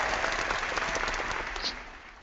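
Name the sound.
audience applause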